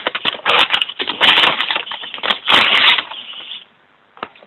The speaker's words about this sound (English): Who's ever rustling papers, please mute your line.